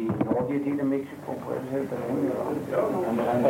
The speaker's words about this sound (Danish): Man kan høre, hvordan der er buzz efter Adamskis oplæg om Mexico.